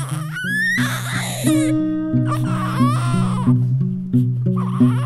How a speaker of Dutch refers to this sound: Sinds een paar dagen woont er een nieuw pleegkindje bij mijn broer. Ze is klein en fijn en als ze huilt klinkt het breekbaar.